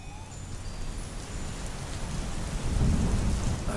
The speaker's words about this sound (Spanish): Ay, en esta enorme roca esperaremos hasta que pase la lluvia.